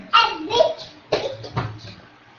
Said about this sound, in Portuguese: Escutaram a vozinha de neném passando aqui? É minha netinha que está indo tomar banho.